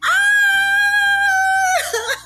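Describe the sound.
A voice imitates the loud sexual moaning of people in a short-stay hotel, letting out one long, high, sustained scream that cracks and breaks off at the end, over a faint low pulsing background.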